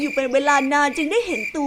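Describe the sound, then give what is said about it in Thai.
A steady, high-pitched cricket chirp hums continuously in the background while a narrator speaks over it. “วันหนึ่งขณะที่สิงโตนอนเล่นอยู่ ได้ยินเสียงจิ้งหรีดร้องอยู่ใกล้ๆก็พยายามมองหา”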